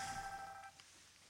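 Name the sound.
mobile phone ringing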